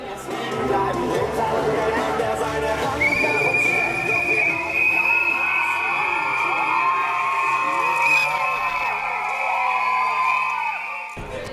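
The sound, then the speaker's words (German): A loud crowd at a noise demonstration, people carrying whistles, drums and horns, on a cold, very windy day, chatters and shouts; after a few seconds a long, shrill whistle-like tone holds steady above the din until the end. “Es ist auch eine Lärmdemo. Das heißt, die Leute haben Pfeifen, Trommeln, Tröten, alles Mögliche dabei jetzt beginnt dann gleich der Demozug.”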